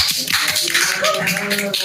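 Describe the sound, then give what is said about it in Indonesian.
An audience at a talk with musicians claps in a dense, steady burst of applause, many hands overlapping into a continuous crackling wash with a few faint voices mixed underneath. “Pertanyaan pertama, boleh boleh boleh tepuk tangan, tepuk tangan boleh.”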